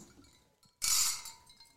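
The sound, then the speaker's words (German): Three glasses clink together in a toast, a bright cluster of chimes that rings briefly and fades after a quiet moment, with no talking. “Genau, wir stoßen nochmal an und ihr könnt raten, wie viele Personen wir sind.”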